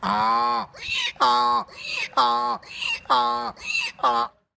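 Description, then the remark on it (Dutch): A man, the YouTube animal-sound imitator, imitates a donkey braying, a loud alternating hee-haw repeated in about five rhythmic cycles, clear with no other sounds. “Geen paard, nog een ezel, maar een man.”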